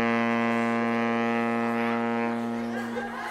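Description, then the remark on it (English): Air blown hard out of the right nostril produces a steady, low, horn-like honk, held loud for about three seconds without a break, with no talking over it. “Yeah, when I blow out of the left side, it makes this sound when I blow out the right, it, it makes this sound.”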